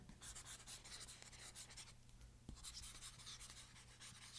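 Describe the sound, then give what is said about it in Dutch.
Continuous scratchy strokes of a stylus writing notes on a textured tablet screen made to feel like paper, with a steady low hum underneath and no talking. “voelt werkelijk waar alsof je op een soort van papier eigenlijk aan het schrijven bent”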